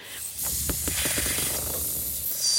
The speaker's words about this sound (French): Alors, vous voyez, c'est exactement ce qui se passe dans votre gorge, mais s'il y a juste de l'air qui est expulsé, ça fait un petit son, un petit sifflement, mais pas grand-chose.